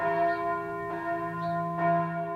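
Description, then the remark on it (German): A church bell rings steadily, its deep sustained tones overlapping with bright strikes repeating roughly every second, resonant, with no voices present. “Dadurch, dass eine Kirchenglocke geweiht ist, mit einem Segen versehen ist, ist sie ein sakraler Gegenstand.”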